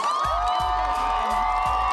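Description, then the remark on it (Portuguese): A production crew cheers and applauds loudly and steadily for guest AD Júnior, a communicator, influencer and TV presenter, with high whoops riding over the noise and a rhythmic low thumping beat pulsing underneath throughout. “Ele nada mais nada menos, um comunicador, pesquisador, influenciador, apresentador de TV, ele, AD Júnior, palmas produção.”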